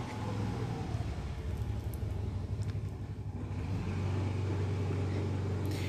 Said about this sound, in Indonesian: Bentar, ada motor lagi.